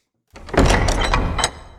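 A door rolls shut with a rumbling, scraping slide lasting about a second, ending in a firm knock as it meets the frame; fairly loud, with no voices.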